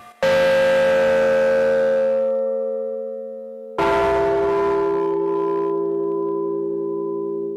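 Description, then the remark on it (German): A newly cast church bell for the town church in Borken is struck twice as a final step after grinding. Each strike rings out loud with a rich, layered strike tone made of several partial tones, humming on and slowly fading; no voices are heard. “Und zum Abschluss wird die Glocke noch angeschlagen. Dabei ist der Schlagton zu hören, der sich aus verschiedenen Teiltönen zusammensetzt und die müssen ganz genau aufeinander abgestimmt sein.”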